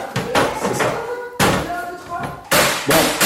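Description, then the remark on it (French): A cleaver chops red kuri squash into cubes on a cutting board with about four heavy, irregularly spaced thuds, each followed by a brief ringing decay. “Donc ce qu'on entend là, c'est moi qui tranche du potimarron.”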